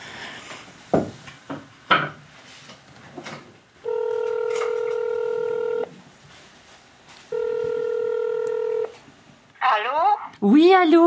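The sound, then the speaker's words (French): A few soft clicks and taps, then two long, steady electronic telephone tones separated by a short pause, fairly loud, as a phone call is placed to someone in Montréal, Canada; a voice briefly speaks right after. “Alors peut-être qu'on pourra essayer de l'appeler, non Ah oui, ce serait formidable de pouvoir lui parler.”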